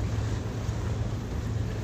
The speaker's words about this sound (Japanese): 今日はあの隅田川を歩いてます